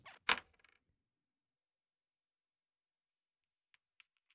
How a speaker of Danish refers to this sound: Nå, øh, slå med terningerne,